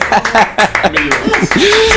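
A short burst of applause, quick uneven claps running steadily for about two seconds, mixed with voices and a rising, drawn-out vocal exclamation near the end.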